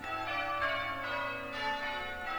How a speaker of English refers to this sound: The church bells were ringing this happened every Sunday. This happened during the week, church bell practice, once a week.